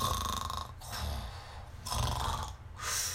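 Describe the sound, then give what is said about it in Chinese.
Loud, rhythmic snoring of a mud-covered piglet asleep on clean white sheets in a laundry basket, about four rasping breaths in a steady cycle, each with a low rattling rumble and a breathy hiss. No one speaks. “他从洗衣篮里听到一阵打呼的声音。”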